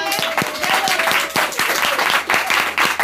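A crowd applauds steadily, many hands clapping in a dense, continuous patter with a few louder individual claps standing out, sustained at a fairly strong level throughout.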